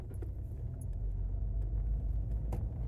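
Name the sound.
car driving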